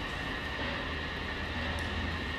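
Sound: train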